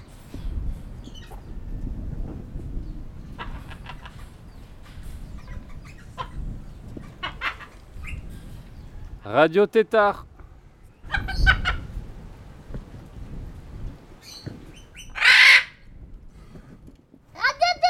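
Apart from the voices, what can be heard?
parrot squawking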